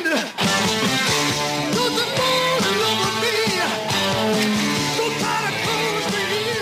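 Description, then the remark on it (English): A loud, dense rock guitar riff plays from a recorded song, driving and continuous with thick layered instruments behind it for several seconds, with no one talking over it. “Listen to this riff.”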